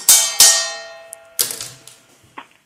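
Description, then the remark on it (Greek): A metal trophy cup, one of the three trophies of a treble, struck a few times: two bright, ringing clangs in quick succession, then a third after a pause and a softer tap, each leaving a shimmering metallic tone that fades. “Ο ήχο από το κυπελό, από το τρόπαιο, ένα από τα τρία που είναι το τρέμπλ.”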